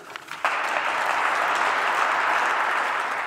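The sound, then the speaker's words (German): A loud, sustained burst of audience applause, many hands clapping densely and steadily after a brief quieter start, holding strong to the end with no voices over it. “Ich verhehle nicht, der laute Applaus hat mich sehr gefreut.”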